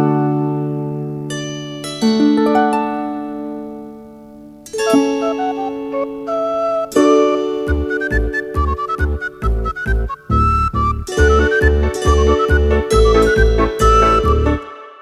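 An instrumental theme melody that plays at the very end of the Avārijas brigāde animated films, opening with slow sustained chords, then shifting into a bouncy, steady rhythm with pulsing bass and bright, twinkling high notes.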